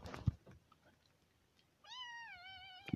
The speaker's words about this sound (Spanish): Digo, no, oh, disculpa, mis gatitos están llorando.